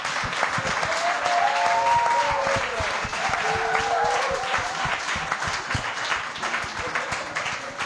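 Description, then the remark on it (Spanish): A large audience applauds steadily and loudly for an artist at Río Babel, dense clapping with a few cheers and whoops rising above it, fading slightly toward the end. “Así que ahora yo también vuelvo a pedir un fuerte aplauso para ….”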